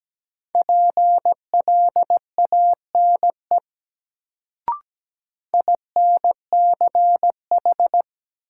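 Morse code sent at 17 words per minute as a steady mid-pitched beep, keyed in quick dots and dashes, spelling sentences from a drill of the top 1000 words, two runs of characters split by a pause with a single sharp click.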